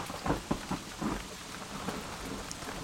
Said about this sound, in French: La pluie tombait, battante, et quelques éclairs balayaient le ciel.